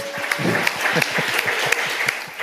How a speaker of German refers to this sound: Einmal Applaus Dankeschön. für Andreas Büsch. Danke.